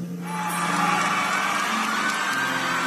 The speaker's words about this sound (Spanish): A la gente le encanta como ves. Sí, parece que hay mucho entusiasmo. Le aplaude